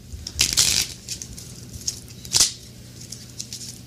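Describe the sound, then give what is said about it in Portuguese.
Playing cards being shuffled, with a longer crisp riffle near the start and a second quick burst a moment later, soft papery rustling in between and no voices; the deck is shuffled until someone says stop. “A hora que você fala pra eu parar, você fala para e eu paro de embaralhar, tá?”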